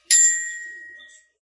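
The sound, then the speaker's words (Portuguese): A single bright, metallic ding from a child's small toy bell, struck sharply and left to ring out with a shimmering tone that fades away over about a second. “Que que é isso, Rafael? Brinquedo do meu filho.”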